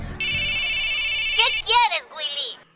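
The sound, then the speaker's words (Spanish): A telephone rings with one steady, high electronic trill lasting over a second, followed by brief warbling, chirpy vocal-like sounds as it stops. “Fierita Lady acaba de llamar y dice que ya viene en camino.”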